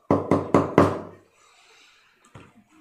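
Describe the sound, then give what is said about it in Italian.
Four loud, evenly spaced knocks on a door by a guard carrying a tray of food, followed by a quiet pause and then a softer thud with faint movement. “Arriva come al solito la, la guardia, il vampiro, con quello che sembrerebbe essere una specie di vassoio con delle pietanze. Bussa.”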